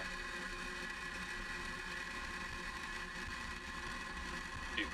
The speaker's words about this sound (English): Engines full power. And lift off of Starlink 2-6. Go Falcon, go Starlink.